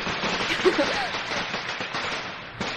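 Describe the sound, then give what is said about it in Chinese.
A rapid, continuous string of firecrackers, played as a sound effect to celebrate a birthday, crackles and pops for nearly three seconds, a dense, loud burst of sharp snaps with a few stronger bangs standing out. “好，希望他有听到，啊，再给你放个鞭炮。”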